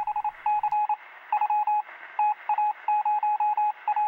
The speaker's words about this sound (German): Und ich habe sogar, äh, hab sogar geiler, geiles Intro dafür. Das hören wir jetzt.